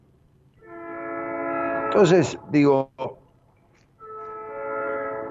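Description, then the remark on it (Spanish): A passing train's loud horn blares in long, sustained harmonic blasts, starting, pausing briefly, then sounding again, with a person speaking over it in the middle. “está pasando este tren con su bocina que es tremendo”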